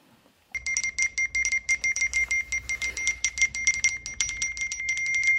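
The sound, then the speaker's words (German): iPhone message alert chimes go off over and over in quick succession as a fuzzer sends about 400 to 500 SMS per second, a dense, loud stream of bright, high-pitched electronic tones overlapping without pause, with no one talking. “Also da gibt es iPhones, die drehen einfach so ein bisschen durch.”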